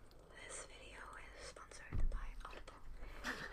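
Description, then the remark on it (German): Soft ASMR whispering from an ASMR video being played, with breathy, hissing sibilants, quiet and continuous, with a brief low bump of handling noise partway through. “Wir hören uns gerade ASMR-Videos an.”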